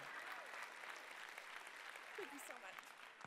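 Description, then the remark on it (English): Steady audience applause fills the whole stretch, a dense wash of many hands clapping at an even level, with a few faint voices briefly rising beneath it. “But it was I a tremendous plug, and let's clap it up for the hustle.”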